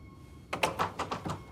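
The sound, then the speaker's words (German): A locked door is jiggled and tugged but won't open, giving a quick run of five or six rattling knocks and thunks after a moment of quiet. “Ich glaube, die ist verschlossen.”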